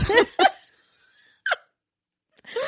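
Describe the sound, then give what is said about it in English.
A person makes several short, sputtering mouth noises imitating a crude, bad fart sound, fairly loud, with brief silent gaps between the bursts. “really crappy noises. And then it's like a bad fart sound.”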